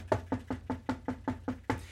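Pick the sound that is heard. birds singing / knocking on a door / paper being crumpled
knocking on a door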